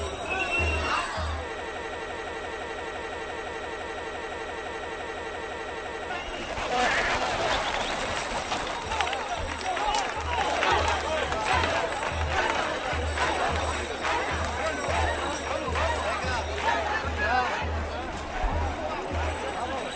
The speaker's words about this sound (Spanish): escuchamos los gritos de los meros, de los, peregrinos, poniendo orden en su fila